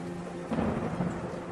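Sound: rain falling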